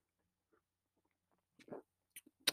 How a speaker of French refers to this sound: Ah, désolé, j'ai pris une petite gorgée de café.